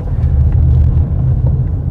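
A steady, deep engine rumble from inside a moving car driving into a Mercadona supermarket, loud and continuous for the whole moment, with faint road noise and no voices.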